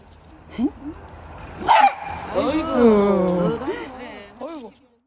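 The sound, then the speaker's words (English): A dog barks, a couple of short yips followed by a sharp bark and a long, wavering, almost voice-like yowl, then one final brief bark before it falls quiet. “Now, maybe you're wondering why is your dog barking so shocking?”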